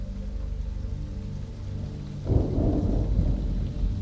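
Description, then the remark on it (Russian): Steady heavy rain hisses throughout, with a low rumble of thunder that swells suddenly midway and rolls on loudly to the end. No voices. “Сквозь пелену дождя смотрел я на пройденный путь, как вдруг заметил кое-что странное.”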